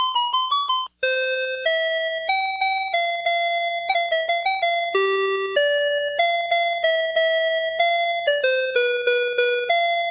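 An electronic alarm clock chime plays a bright, steady melody of clear beeping tones, one note after another with a short pause near the start, loud with no voices.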